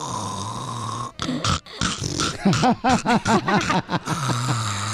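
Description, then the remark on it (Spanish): A comedian telling a joke imitates an old woman snoring in bed, with rough rasping inhales and a quick series of pitched, gurgling snorts, loud over a steady background hum that is heard alone at the start and end. “Así ronca toda la vieja.”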